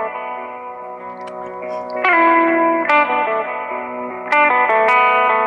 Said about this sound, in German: du hörst die E-Gitarre. Ja. ja. Und in Mali treffen die sich immer und da, da, spielen die dann diese ganze Wüstenmusik und die nordafrikanische Musik. Das ist äh, sehr eigen. Ich habe das so noch nie gehört.